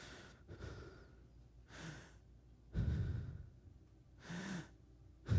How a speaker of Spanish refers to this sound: Tanto así que de, de, pronto empiezas a escuchar solamente tu propia respiración.